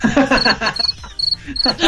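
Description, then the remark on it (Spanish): A cricket chirps in short, high trills repeating every half second or so, while people laugh softly and murmur underneath. “Ahí está el grillo.”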